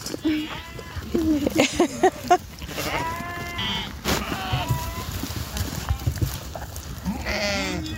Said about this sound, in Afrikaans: En dis nou mieliepitte. Ja, mielies, skape is mal oor mielies. Dit is hulle lekker snack. Hoeveel het jij nou hier op die oomlik? In hierdie kraal is hier um, so 400 skape met lammers.